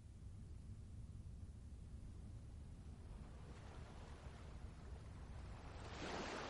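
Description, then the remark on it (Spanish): By day, small waves lap and break gently and steadily against a pebbly shore of the River Thames, a continuous low wash of water with a brighter hiss of surf swelling near the end. No one speaks. “De día, pequeñas olas rompen suavemente en una pedregosa orilla del Támesis.”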